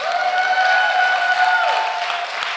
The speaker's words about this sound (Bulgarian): О, ако ръкопляскаш, ръкопляска и на балкона.